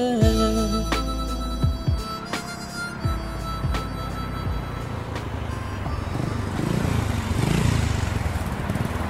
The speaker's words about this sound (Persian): ایستاد از موتور پیاده شد و به سمت ساختمان رفت